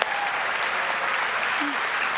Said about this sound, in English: Now give Jesus a big hand, hand clap.